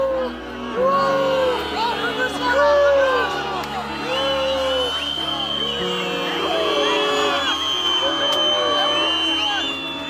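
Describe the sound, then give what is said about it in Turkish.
People of Hatay angrily boo Health Minister Fahrettin Koca as he walks among them: a dense, agitated crowd keeps up continuous loud jeering and shouting, many overlapping voices rising and falling in a steady roar with sharper individual yells cutting through. “Kimsenin sallamadığı, hiçbir önem arz etmeyen bu kişiyi Hataylıların öfke dolu yuhalamaları karşıladı.”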